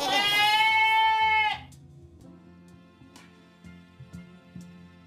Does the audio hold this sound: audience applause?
no